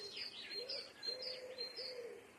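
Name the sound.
bird calling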